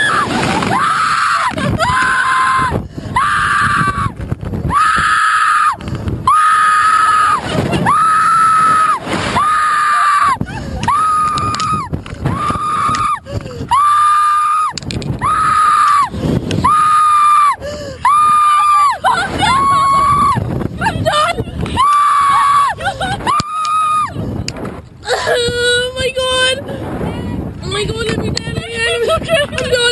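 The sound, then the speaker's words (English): Repeated loud, piercing screams in rhythmic bursts with brief gasps between, over heavy wind rush, as two Florida State University soccer players ride a high-speed slingshot ride at an amusement park; the screaming eases into breathy, shaky vocalizing near the end. “Two Florida State University soccer players with two very different reactions to the slingshot ride.”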